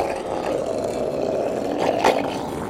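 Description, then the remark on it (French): A seal lying at the edge of the ocean in icy Greenland grunts in a low, rough, drawn-out rumble that runs steadily throughout, fairly loud, swelling briefly into a harsher burst near the end. “Oh, ce grognement, je le reconnais. C'est un phoque.”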